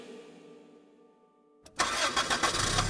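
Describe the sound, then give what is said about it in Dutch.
A quiet hum gives way to a taxi engine cranking over and catching, then settling into a loud, steady running roar. “De taxi brengt ons naar de bushalte, waar we de eerste bus nemen tot aan de Poolse grens.”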